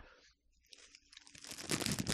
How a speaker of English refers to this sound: …, you want to eat that cookie louder?